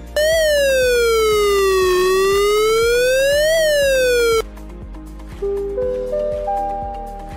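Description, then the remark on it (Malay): A loud flood early-warning siren, the warning siren sounded when river water exceeds the warning level and audible 1 to 2 kilometres away, wails with its pitch sliding down, up and down again, then abruptly gives way to a short series of stepped electronic alert tones rising in pitch. “Pertama, bunyi siren amaran.”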